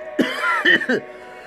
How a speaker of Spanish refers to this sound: Ay, ay, ay. Esta tos matutina siempre me mata.